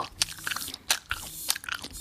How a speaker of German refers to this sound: Oder jemand schmatzt in dein Ohr